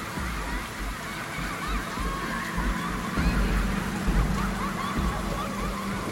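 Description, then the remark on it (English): Heavy driving rain pours down in a dense, steady hiss that never lets up, with a low rumbling undertone that swells slightly midway through. “He got out of the vehicle and called out her name into the driving rain, although no reply came forth.”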